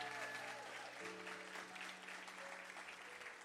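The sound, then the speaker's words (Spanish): Sustained applause from an audience giving a round of applause to the Lord, a dense steady clatter of many hands clapping at full volume throughout, with faint tonal sounds, like music or voices, held underneath. “Si tú lo crees, dele un aplauso como Él se lo merece al Señor.”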